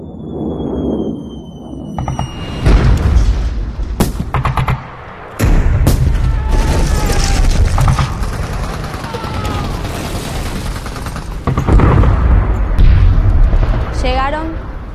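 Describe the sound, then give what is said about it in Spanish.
Bursts of gunfire crack repeatedly amid heavy booming bomb explosions, a dense, chaotic barrage that keeps going for the whole stretch, with voices faintly mixed into the din. “lo único que escuchaban eran tiros y bombas”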